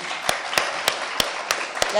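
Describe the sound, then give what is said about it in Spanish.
Applause welcoming a music group in the early morning, in a steady rhythm: six sharp, evenly spaced claps, roughly three per second, rise above a dense, continuous wash of crowd noise. “Bueno, desde las 5 de la mañana aquí nosotros ya estamos bailando, los recibimos también con un gran aplauso, por favor.”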